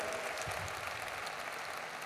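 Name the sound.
audience applause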